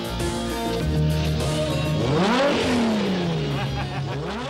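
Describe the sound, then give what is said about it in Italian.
A Ferrari Testarossa engine idles with a steady hum, then revs up sharply to a rising whine and settles back down, loud, with a second smaller rev near the end. “Una bellissima Ferrari testa rossa, forse una delle auto più iconiche sia degli anni, ovviamente 80-90, e soprattutto anche della Ferrari”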